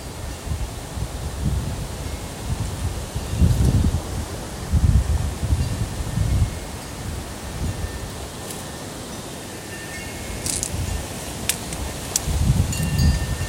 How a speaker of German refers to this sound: Ich stehe gerade vor meinem Zelt bei Windstärke 5 und möchte euch ein bisschen an den Geräuschen hier teilhaben lassen. Der Wind also, den hört man und dann hört man jetzt auch noch mein Windspiel.